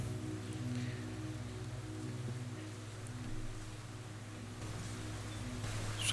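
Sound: heavy rain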